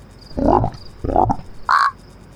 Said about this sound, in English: How am I supposed to sleep with that frog outside croaking? I feel like he's purposefully trying to annoy me.